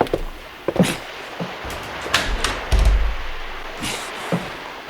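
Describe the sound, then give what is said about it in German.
Someone rattles the handle of a locked door on a fishing boat converted into a pirate ship for filming: a series of irregular metallic clicks and clunks with a few dull thuds, spread over several seconds with no voices. “Ah, verschlossen. Seltsam.”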